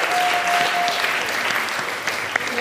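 Steady applause fills the whole stretch, a dense patter of many hands clapping at a fairly constant loudness, with a faint thin tone briefly sounding near the start.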